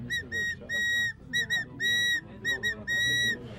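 A scout blows a shrill whistle as a fire brigade signal to start spraying water, a signalling pattern of short and long blasts, loud and clear, with a faint rumble of background noise beneath and no talking.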